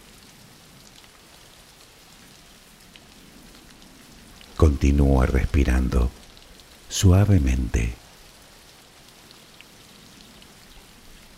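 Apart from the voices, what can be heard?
rain falling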